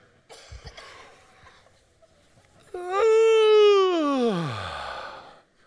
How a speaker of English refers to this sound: I would, you know, first date, and I would do uh, yawn and stretch. You know, yawn and stretch?